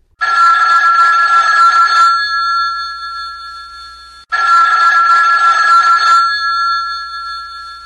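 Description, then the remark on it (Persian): A telephone rings twice, each loud bright ring lasting about two seconds with a lingering tonal ring-out before the next burst, with no voices. “گوشی بردار گوشی و بردار میگم گوشی و بردار”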